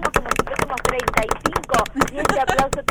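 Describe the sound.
Close, lively hand clapping from a small group, the sharp claps coming fast and uneven for about three seconds, with voices talking and cheering underneath.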